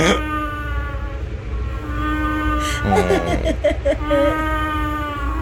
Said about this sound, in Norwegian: lyden av babyoter som ligger og sover. Det høres ut som 17. mai. ja. ja. Men med litt dårlig lungekapasitet i en sånn blåsegreie. Pipelyder i lungene, ja.